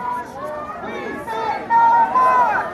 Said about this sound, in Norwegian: fordi like ved oss Eh, så er det da en stor demonstrasjon som går med gule plakater og roper, som vi hører i bakgrunnen her. Dronene ut av Afrika, ut av Middeløsten, ut av Asia.